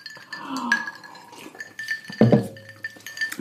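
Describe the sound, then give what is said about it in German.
Glasses of Aperol Spritz clink together in a toast, a bright ringing chime that repeats a few times, with a soft murmur of background noise and a low bump partway through. “So, also in dieser Folge wird Alkohol getrunken. Prost.”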